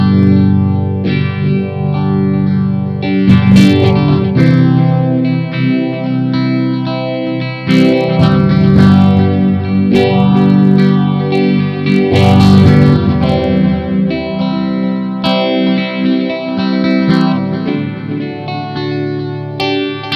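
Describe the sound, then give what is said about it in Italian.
An electric guitar plays sustained, strummed chords through a swirling chorus and flanger effect, loud, with a few sharper strums standing out over about twenty seconds and no voices. “Partiamo con la prima prova e vediamo con eh, un effetto chorus e flanger con la chitarra l'effetto che fa.”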